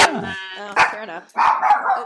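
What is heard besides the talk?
dog barking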